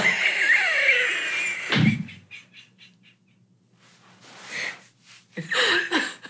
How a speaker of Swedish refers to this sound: snyter sig Ursäkta.